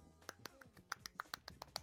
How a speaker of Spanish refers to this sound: El que, el que no me conoce tiene que saber que yo soy hiperlaxo y voy a aplaudir con una mano. A ver, aplaude.